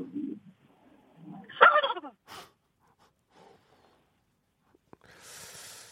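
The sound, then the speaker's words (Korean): A person's voice imitates a turkey startled at seeing a field mouse, with a short, strained squawk among a few soft low vocal bursts, followed by quiet pauses and a breathy hiss at the end. “자, 들쥐를 보고 깜짝 놀란 칠면조 소리입니다.”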